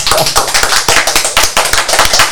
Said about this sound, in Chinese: 这个掌声呢，虽然稀稀落落，但代表大家都听过。稀稀落落的原因是因为我们没几个人的哈，现场的观众没有几个。